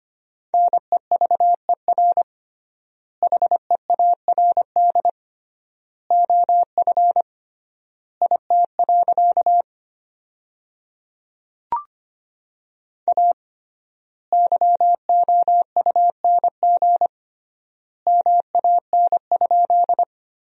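Morse code sent at 25 words per minute as a steady, single-pitched tone in quick dot-and-dash bursts, forming sentences from the 400 most common words with triple word spacing. The word groups are separated by clear pauses, and one short click sounds midway.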